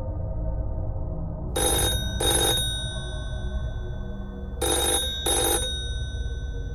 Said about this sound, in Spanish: Era el teléfono.